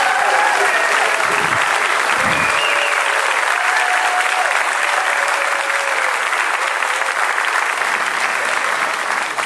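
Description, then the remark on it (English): Sustained, loud applause from a large audience welcoming the 2023 residents to the stage, steady clapping with faint cheering tones drifting through it for the whole stretch. “So, would you help me welcome our 2023 residents to the stage uh, today?”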